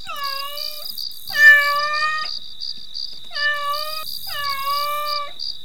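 A cat meows four times, long drawn-out calls in two close pairs, clear, over a steady high-pitched pulsing chirp that runs throughout.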